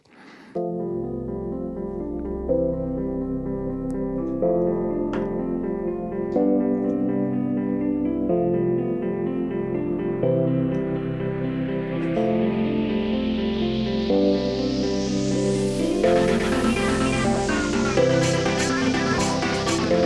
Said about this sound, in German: Spülen wir das erste Intro ein.